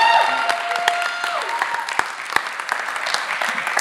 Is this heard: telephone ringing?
no